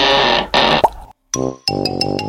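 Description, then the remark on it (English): Two rushing whooshes end in a sharp little pop as a bunch of paper flowers pops out of the end of a trick wand after the spell 'Abracadabra', followed by bright, ringing, buzzy tones with a steady twinkling pulse. “At last, a bunch of paper flowers popped out of the end of the trick wand.”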